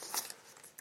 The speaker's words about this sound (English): I want to get to U.S. Nationals in a second, but uh, first I want to uh, mention uh, the the cover story of this month's edition of the Curling News, and I've, I've got it right in front of me. Here's the sound of a newspaper,